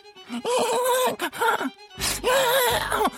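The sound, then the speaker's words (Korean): Someone imitates a dog snoring, a few fairly loud nasal groans with a breathy snort in the middle, drawn out and rhythmic like sleepy breathing. “우리 강아지도 코를 고는데”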